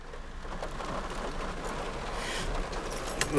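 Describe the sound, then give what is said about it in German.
Steady rain patters and hisses as it starts raining into a car, with scattered droplet taps and a louder burst of noise right at the end. “Oh, jetzt fängt es wirklich an, in mein Auto reinzuregnen.”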